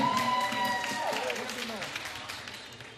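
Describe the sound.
A crowd applauds steadily for three seconds, a dense wash of clapping with voices calling and cheering over it, gradually easing off toward the end.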